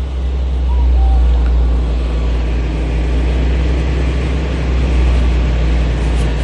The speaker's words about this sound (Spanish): Esto es en la base aérea de Río Negro el paso de cada una de estas carrozas.